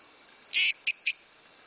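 A male frog calls with a short, high buzzy note followed by two quick clicks in close succession, standing out clearly against a quiet background with no one talking.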